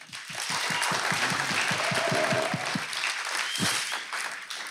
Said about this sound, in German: Hey, und deshalb, ich finde es ganz gut, wenn wir auch nochmal den Eltern richtig großen Applaus geben. Hey, come on.